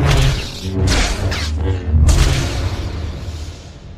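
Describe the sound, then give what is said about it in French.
An invented lightsaber sound effect hums with a deep, steady buzz while several loud, sweeping swings whoosh past, each swell rising and fading over the hum. “le son emblématique du sabre laser”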